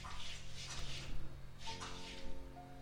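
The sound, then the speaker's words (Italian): Soap bubbles pop and fizz close by in soft, irregular crackling bursts, with a wet quality, over a steady low hum and faint tonal ringing. “portiamo l'attenzione e ci sembra di riconoscere delle bolle di sapone che scoppiettano vicino a noi.”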